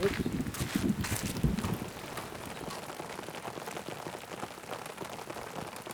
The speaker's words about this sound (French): La pluie est arrivée comme un miracle, mais a coupé court notre visite